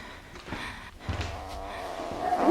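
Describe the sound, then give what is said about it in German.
A single cat meow rises near the end, clear, after a stretch of soft rustling and low background noise. “gute Katze.”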